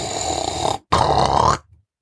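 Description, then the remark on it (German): A dog lying in a large round basket under a table gives two low, rough grunts in quick succession, fairly soft, with a short pause between them and no talking. “da habt ihr es vielleicht ganz leise hören können. Dann ist das Otto, mein Hund, der sich unter mich gelegt hat”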